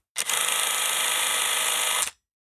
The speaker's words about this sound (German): Das ist zwar jetzt 16 mm äh, Kamera, die aufgezogen wird.